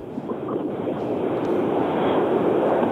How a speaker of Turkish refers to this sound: Ee, dünden beri fırtına devam ediyor. …, arabanın içinde misiniz siz? Evet arabanın içindeyim kenardayım ama. E, camı kapatsan da geliyor mu bu kadar ses böyle? Evet. Yani camı kapatırsan şu anda sanki güzel gibi olur.